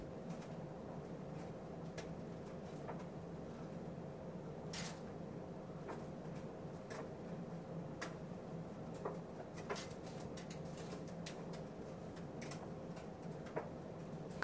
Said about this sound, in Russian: А мы можем немного осмотреться и отдохнуть в тишине под звуки французской речи и набирающей воду машины.